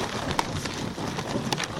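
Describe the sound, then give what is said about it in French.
A reindeer-drawn sleigh glides over snow, making a steady crunching hiss with scattered sharp clicks and creaks, continuous throughout with no voices. “c'est bien le bruit d'un traîneau quand un renne avance.”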